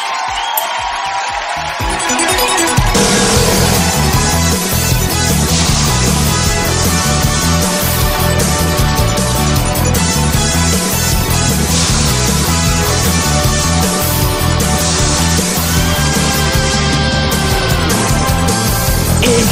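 The opening theme of the anime Digimon 02, played on the radio station modoradio.cl, kicks in after a brief pause, a loud, dense rock-style intro with driving drums and bright guitars that plays steadily and energetically with no singing yet.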